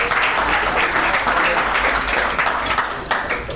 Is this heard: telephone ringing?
no